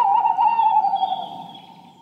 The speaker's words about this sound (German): die Infotiere der Woche sind Eulen und das ist ein Waldkauz.